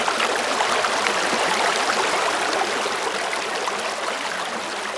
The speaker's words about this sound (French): pas encore un fleuve, mais un vaillant ruisseau, cascadeur agile, trace à caillou sa route d'argile.